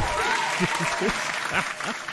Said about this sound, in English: This is his first email to the Is It Safe Talk Show. So round of applause.